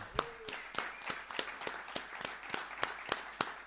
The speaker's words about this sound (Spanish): Un aplauso.